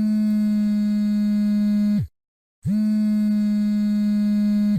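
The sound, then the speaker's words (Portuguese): A telephone rings at a workplace with a call from a school, in two long, steady buzzing tones with a short silent gap between them, low-pitched and loud, with no voices. “E aí ela tá lá trabalhando, fazendo os desenhos dela, de repente o telefone toca.”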